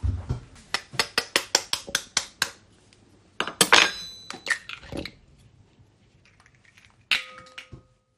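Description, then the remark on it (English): Rapid, regular metallic clinks of a fork against a bowl as three eggs are beaten, about a dozen sharp taps in a row, then a louder clattering scrape and a few scattered clinks with a brief ringing tone. “Okay, so I'll just get a bowl to whip up the eggs.”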